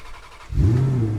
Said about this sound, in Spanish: Y sin más. ¡Arrancamos motores!